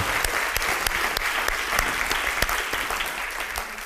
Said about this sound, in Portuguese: Eu acho que dá para dar um aplauso mais forte ao Espírito Santo, né? Aleluia!